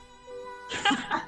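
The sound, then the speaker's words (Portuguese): A single sneeze: a drawn-out voiced intake that builds into a sudden, breathy, noisy burst, fairly loud and on its own with no talking. “Ai, peraí que eu vou espirrar agora.”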